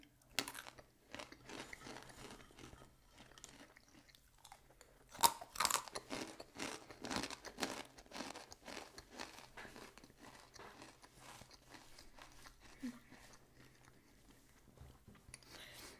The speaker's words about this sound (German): Mm, die Erdnüsse vor allem sind auch nicht so hart. Die sind einfach gut zu kauen und haben auch einen niceen Geschmack.